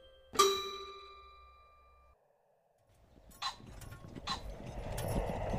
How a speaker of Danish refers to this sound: Hvad er det, der kommer der? Nå, det der. Ja, det, er en, øh, det er en hestevogn. Hvad er det? Ja, en hestevogn, det er et vogn, der bliver trukket af heste.